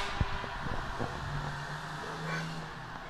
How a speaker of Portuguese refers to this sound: É, esse? é um caminhão de bombeiro. Nossa, vocês estão ouvindo, gente?